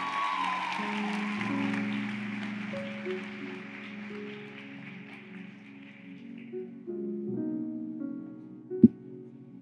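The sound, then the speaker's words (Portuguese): An audience at an evening service applauds the Lord, clapping steadily in a dense wash of applause that gradually fades out after about six seconds, with sustained keyboard tones underneath and a single sharp thump near the end. “Será que você pode aplaudir ao Senhor nessa noite?”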